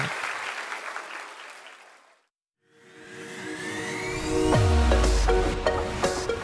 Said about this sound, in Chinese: 哇，拍手， 真的要拍手。